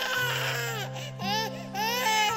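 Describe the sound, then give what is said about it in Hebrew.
An infant girl left on the shore wails loudly, in several long, rising-and-falling cries with brief breaths between them, steady tonal sound filling the whole stretch. “כיוונה אותנו לחוף בתבונה אינסופית בזכות קולות הבכי הרמים שלה.”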